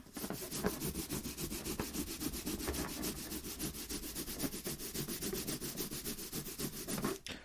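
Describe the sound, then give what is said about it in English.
A balloon rubbed rapidly back and forth on hair, making a steady, rhythmic scratchy swishing that continues for several seconds with no talking. “Okay, just rubbing this on my head hair now.”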